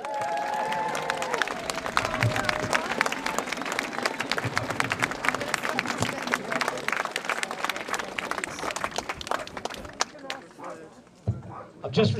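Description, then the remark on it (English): A crowd bursts into sustained applause, dense overlapping claps with some cheering and voices mixed in, steady and loud for about ten seconds before tapering off, as the audience gives itself a round of applause. “Now give yourselves a massive round of applause.”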